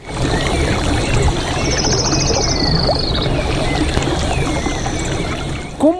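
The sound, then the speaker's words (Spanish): A steady rush of a small jungle stream fills the whole clip, with high, pulsing trills of little frogs jumping in the stream chirping over it in short bursts, and a few brief clicks near the end. “La majestuosidad de la selva, con sus árboles, sus plantas, las mariposas, los sapitos que están saltando en el riachuelo.”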